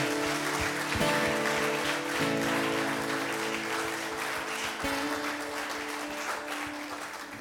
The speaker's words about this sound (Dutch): Zullen we die hemelse vader eens een applaus geven? Wauw.